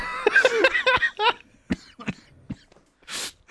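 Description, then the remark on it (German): A short series of throaty coughs, several sharp bursts in quick succession followed by a couple of scattered coughs and a raspy exhale, with no talking. “Och Gott, mein Husten fängt an.”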